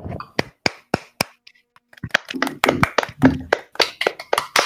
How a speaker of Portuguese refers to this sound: Merecido. Vamos uma salva de palmas pra ele.